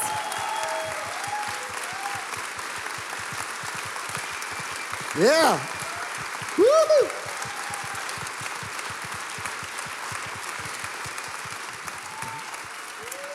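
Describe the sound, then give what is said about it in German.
Sustained audience applause fills the whole stretch, dense and steady, with a couple of brief shouted cheers and whoops rising above the clapping partway through. “Ja, das ist euer Applaus. Genießen ja, den Applaus.”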